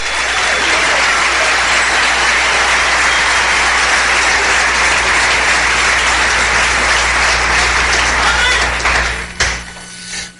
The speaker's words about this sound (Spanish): Dale un aplauso bien fuerte al rey.